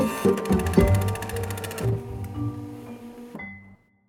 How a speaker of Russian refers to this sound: Вторая проблема была в том, что в начале 80-х чаще всего использовали матричные принтеры. Они бьют по бумаге маленькими иголочками, оставляя на ней точки. И из этих точек получаются нужные буквы.